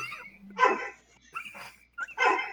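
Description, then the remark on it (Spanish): Dogs bark three times in quick succession, fairly loud, with short pauses between the sharp yelps and a brief low whine just before the first. “En efecto, están ladrando.”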